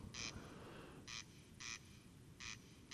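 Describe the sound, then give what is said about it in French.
A corncrake (Crex crex) gives its dry, rasping crex-crex call, repeating in short paired bursts against a low rumbling background, the harsh notes sounding clear with no voices present. “Observation sonore - Le Râle des genêts”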